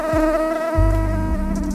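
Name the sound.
mosquito buzzing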